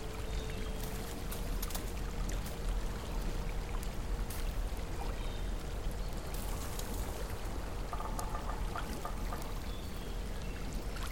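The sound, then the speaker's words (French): Hot spring water trickles and pours steadily, a continuous watery splashing with small bright drips and tinkles scattered on top, no voices present. Steam rises from the spring while snow falls gently over the landscape. “Tout autour de vous est silencieux, à l'exception du tintement de l'eau de la source.”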